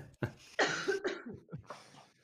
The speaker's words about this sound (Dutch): Ehm, ik moet even hoesten, sorry. Mm. Knip eruit. Als je hoesten moet, dan moet je hoesten.